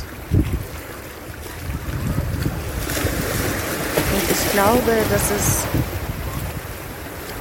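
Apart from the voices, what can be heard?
ocean waves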